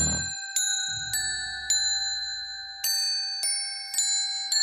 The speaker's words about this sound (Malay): Pada waktu malam, dekat pokok Christmas tu dia gantung ada beberapa loceng. Tengah tidur, katanya dia dengar bunyi loceng.